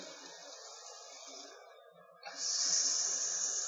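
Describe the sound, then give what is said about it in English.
A big burger patty sizzles in a hot pan, a steady crackling hiss that eases briefly partway through, then surges back louder and brighter. No one speaks. “Hear that sizzle.”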